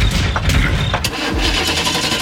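A car engine cranks and starts up, sputtering into a steady idle with a loud rumble and no talking.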